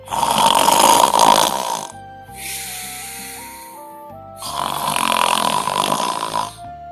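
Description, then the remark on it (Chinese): Two long, loud, rasping snores from a father, loud as thunder, with a softer breathy exhale between them, over a quiet, sustained musical tone. “”鼾声响得跟打雷一样。”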